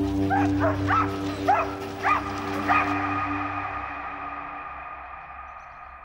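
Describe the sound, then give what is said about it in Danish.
Police dogs bark in a quick burst of about six sharp yips over roughly three seconds as police advance in a long line clearing demonstrators from Hundige Strandvej in Greve, Denmark, above a steady low hum; the barking then stops and only the droning background remains. “De går frem mod dem i en lang række med deres politihunde.”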